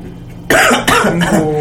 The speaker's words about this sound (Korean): 기침할 때 감기를 어, 걸렸을 때내 맘대로 기침할 수 있을 때